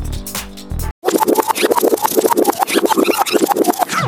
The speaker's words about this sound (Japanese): はい、ジョージ・ガーシュウィン、ラプソディ・イン・ブルーを聞いてもらいました。えー、っと、今、フェードアウトされて、小さく我々のトークのバックで少し続きが流れていると思ってください。